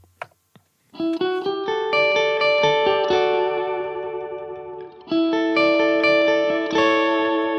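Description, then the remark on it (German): After a couple of soft clicks, an electric guitar rings out sustained chords, struck anew several times, first with a clean sound, then with one and then the other of two drive pedals, a King of Tone and a Morning Glory, switched on, the tone growing thicker and more overdriven, loud. “mit dem Clean Sound und dann wird der eine der beiden Drives angeschaltet und dann der andere.”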